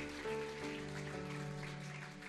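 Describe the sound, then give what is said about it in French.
An audience applauds the worship team during a morning church service in a dense, steady wash of clapping that holds evenly for a couple of seconds, while sustained keyboard chords ring underneath. “On peut les applaudir quand même, les remercier.”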